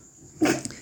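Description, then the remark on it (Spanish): A single quick sneeze bursts out sharply and fades fast, with no talking around it. “Salud, salud, salud, salud.”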